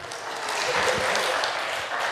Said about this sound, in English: Round of applause.